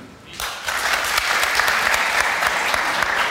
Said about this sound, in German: Hallo, wir haben heute 1000 Menschen hier. Also, alle, die sagen, ruhig Hase, beherrsch dich. Alle, die sagen, es heißt Köpfer, klatschen jetzt einmal in die Hände.